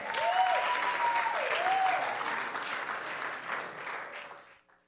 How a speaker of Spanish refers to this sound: Dese un aplauso a las mujeres.